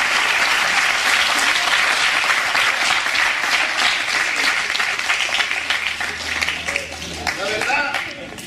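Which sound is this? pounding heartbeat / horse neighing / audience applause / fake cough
audience applause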